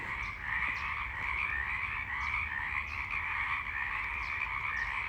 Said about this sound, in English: I wanted you to hear the frogs. Hopefully, they won't notice me.